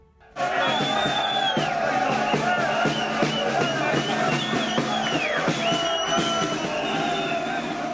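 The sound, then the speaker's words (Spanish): A dense street crowd in the San Francisco neighbourhood of Bilbao celebrates, with flares, Morocco's World Cup win over Canada, with continuous loud cheering, whoops and shouting, rising and falling chants, and sharp bursts cutting through the roar throughout. “La celebración, bengalas incluidas del triunfo de la selección de Marruecos sobre Canadá en el Mundial, una victoria que asegura el pase al combinado norteafricano a los octavos de final.”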